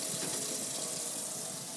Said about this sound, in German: Ich wasche jetzt da einfach mal ein paar Sachen ab, die wir nicht mehr brauchen.